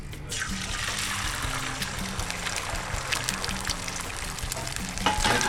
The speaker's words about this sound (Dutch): Kijk, en dan nu heb ik hier, dit is het mooiste geluid wat er is. Een ei die in een eh, hete pan gaat.